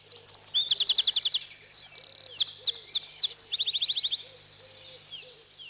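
A wren sings a loud, rapid song of high trilling bursts and quick chirps, repeated in fast runs over several seconds, with no voices.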